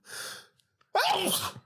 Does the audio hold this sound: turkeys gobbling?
no